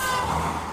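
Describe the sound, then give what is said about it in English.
Dense road traffic on a busy street, heard from someone sitting in a car, rumbling with a sustained vehicle horn blaring over the engine noise at the start and fading as the brief, steady roar continues. “Probably would have been better if I wasn't sitting in a car. In a busy street.”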